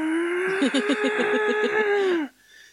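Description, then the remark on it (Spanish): A voice imitates an air raid siren with a single sustained, wavering wail held for about two seconds, with a rapid pulsing flutter through the middle, then cut off abruptly. “Eh, sirena, que la busqué y es igual de horrible que la de ataque aéreo. ¿Viste? El ataque aéreo que es como.”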